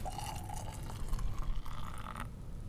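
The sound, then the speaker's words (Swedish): Spiced cocoa milk, made of milk, cocoa and a few spices, pours steadily into a glass that already holds Kahlúa. It makes a continuous splashing gurgle with a faint rising tone as the glass fills, with no talking. “Men innan du häller.”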